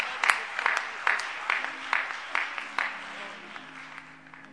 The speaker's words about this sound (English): If you love Him this morning, let's give Him a great big hand clap. Praise God.